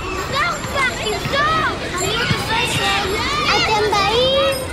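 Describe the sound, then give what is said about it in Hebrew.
Children shouting and playing during the summer holidays, many high voices overlapping in a steady lively din of calls, squeals and rising yells with no pauses throughout. “כשהחופש הגדול מגיע, מגיעים איתו מכל עבר קולות ה...”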